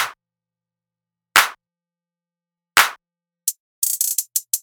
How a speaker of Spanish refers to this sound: Palmas.